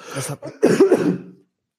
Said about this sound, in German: Achtung, ich huste einmal.